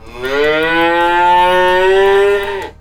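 A single long cow moo, loud and steady, holding a low droning pitch with rich harmonics for over two seconds before cutting off abruptly. No one speaks.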